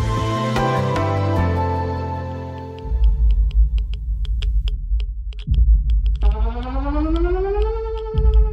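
Air raid sirens wail over Denmark as bombs fall in an imagined World War III nuclear war, their tones gliding and climbing in pitch over a heavy, continuous low rumble that swells partway through; no one speaks.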